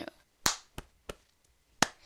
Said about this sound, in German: Und das einfach nur auf die Brust klatschen, schnipsen, klatschen, nochmal auf die Brust schnipsen, klatschen und dann kommt so ein Rhythmus draus.